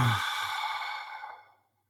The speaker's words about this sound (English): Like if we're just having this conversation and you put one hand on your belly, one hand on your chest, and you just take a deep breath into the belly, like just a nice long, slow.